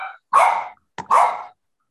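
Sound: small dog barking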